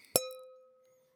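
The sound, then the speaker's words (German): A wine glass is struck once with a sharp clink, followed by a clear, pure ringing tone that slowly fades over about a second, with no voices. “es war leider kein Weißweinglas, was angeschlagen worden ist”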